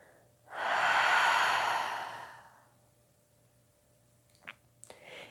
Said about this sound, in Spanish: Inhala profundo hasta llenar tus pulmones hasta el fondo. Contienes la respiración. y por tu boca exhalas y sueltas.